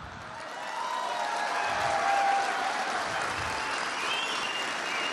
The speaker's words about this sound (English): Now, that laughing and hollering and extended applause that you were hearing there uh, was a whole bunch of uniformed police officers who thought that was the funniest fucking thing in the world.